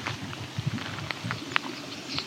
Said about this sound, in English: It's a Savannah Sparrow singing in the background.